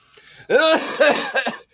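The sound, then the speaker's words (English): A man coughs in a short, harsh burst of about three hacking coughs as an attempted laugh turns into coughing, fairly loud, with no other sound around it. “was meant to be a laugh. I actually started coughing.”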